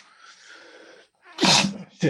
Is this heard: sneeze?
yes